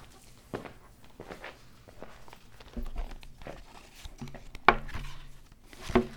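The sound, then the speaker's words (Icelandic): Footsteps walking up to a podium: a series of soft, uneven steps that build to a couple of sharper, louder footfalls near the end, with no talking. “ég ætla að bjóða þér að ganga hérna bara upp að...”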